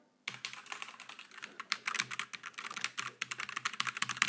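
Rapid, continuous clicking of keys on a computer keyboard, fairly loud, with an irregular typing rhythm and no talking.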